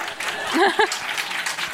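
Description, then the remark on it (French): Steady applause from a small group fills the whole moment, a dense patter of clapping with a brief voiced exclamation rising over it early on. “aïe, aïe, aïe, je sais pas s'il faut applaudir.”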